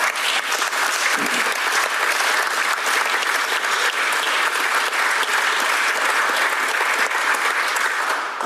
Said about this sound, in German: Hauen Sie raus den Applaus.